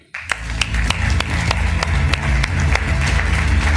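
An audience breaks into sustained applause for a guest being introduced, a dense, steady wash of many hands clapping that starts abruptly and keeps a constant loud level, with a low rumbling undertone beneath it.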